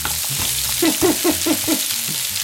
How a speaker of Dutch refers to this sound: De pasta kookt, de ingrediënten zijn gesneden en nu bakt Ipe de stukjes courgette.